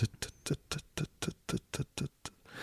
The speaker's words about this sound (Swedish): Har Nolan en grej för tickande klockor eller? Jag vet inte, jag tror inte det återkommer i någon annan film.